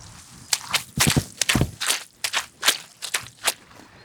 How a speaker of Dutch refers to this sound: Ja, dat zijn eh, nou ja, mijn voeten, of nou ja, alle voeten zullen zo klinken, die eh, door het natte gras heen sompen. Het heeft geregend de hele dag en er liggen dikke plassen water op het gras. En je kunt niets anders dan er doorheen sompen.